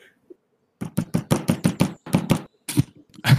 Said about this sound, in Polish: Tak y, kopnąłeś, na chwilę umilkło i słyszę takie gorączkowe... Gorączkowe co? St stukanie, takie po prostu bardzo szybkie.